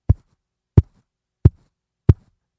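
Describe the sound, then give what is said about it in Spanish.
Four heavy, dull thumps land at a steady, unhurried pace, fairly loud with silence between them, an imitation of a woman knocking her forehead against a door. “Y me dijo, es que ella le está dando con su frente a mi puerta y ya lleva como media hora y su frente está sangrando.”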